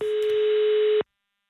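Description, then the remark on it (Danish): A telephone ringing tone on the line: one steady, mid-pitched electronic beep lasting about a second, heard alone over faint line hiss before it cuts off into silence. “øh, akavet over, at den ringer.”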